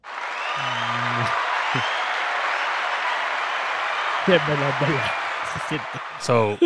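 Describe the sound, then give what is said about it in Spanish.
Steady applause fills the whole stretch at an even, fairly loud level, a dense wash of clapping, with brief bits of voice talking over it near the start and toward the end. “oye, un aplauso para ti.”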